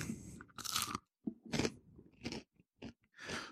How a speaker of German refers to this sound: Ähm, ich versuche jetzt mal leise zu kauen. Das Stück, was ich hier abgebrochen habe, ist jetzt entsprechend abgekühlt.